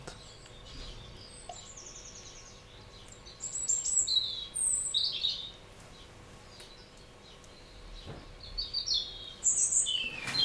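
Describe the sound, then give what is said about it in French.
A bird sings in repeated high, bright phrases over a steady outdoor ambience, with short trills and chirps coming in bursts, fairly clear, no voices present; occasional distant rumbles of thunder sound beyond the birdsong. “Parfois on entend quelques grondements d'orage loin, au-delà de l'oiseau qui chante.”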